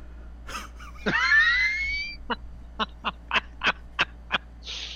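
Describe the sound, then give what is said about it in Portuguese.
A voice imitates a startled horse: a sharp, gasping whinny-like cry, then a rapid, even run of about eight short, breathy snorting bursts, with no talking. “faz um cavalo surpreso.”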